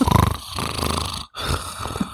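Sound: voice imitating loud snoring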